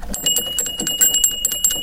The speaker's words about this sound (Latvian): Tā skan pirts zvaniņš, kad jūs viņu skandinat, kad pirts ir gatava? Nē, pārsvarā tad, ja kāds šeit ir iekšā, būtu kauls, tad parasti piezvana, lai zinātu, kad kāds nāk iekšā.